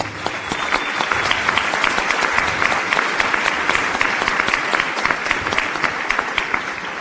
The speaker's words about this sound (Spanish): Antes de darle la palabra nuevamente a la maestra Susana, quisiera pedirles un, eh, aplauso.